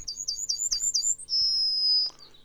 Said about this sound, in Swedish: Eh, vi ska lyssna på en liten pippi till som heter Gulsparv. Och den, den, är väldigt, det var en av de första fågelläten jag hörde eller lärde mig.